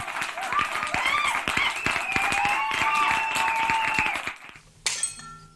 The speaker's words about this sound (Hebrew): ויצאו אל הקהל, שקיבל אותם כרגיל, במחיאות כפיים.